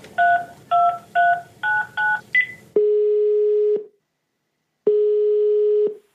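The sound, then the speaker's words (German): A quick run of six touch-tone dialing beeps, followed by two long, steady ringback tones separated by a second of silence, as a call is placed to the Münchner Stadtmuseum (Munich City Museum). No voices. “Aber rufen wir doch mal im Münchner Stadtmuseum an.”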